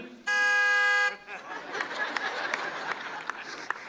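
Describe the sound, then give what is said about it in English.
A single loud, sustained horn honk lasts about a second, then cuts off into a noisy background of crowd chatter and scattered claps. “You know, but in a line, I think that they should invent a honking where you could, you know what I'm saying? Like somebody's not moving,”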